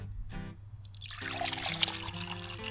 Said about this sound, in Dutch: Maar, dan gaan we nu... Ik maak de fles even open. Dit water komt dus hier van de locatie.